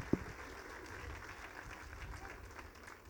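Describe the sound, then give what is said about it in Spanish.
An audience at a Bible sermon claps together in a steady, dense wash of applause that holds for a few seconds, without any voices on top. “¿Pueden darle un aplauso a todos ustedes inteligentes?”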